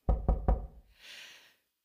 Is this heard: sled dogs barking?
no